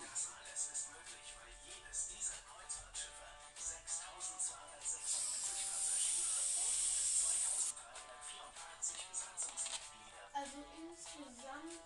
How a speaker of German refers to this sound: Jetzt tut, hat er Luftballons. Äh, dann tut er da jetzt Feuerzeuggas rein. Okay.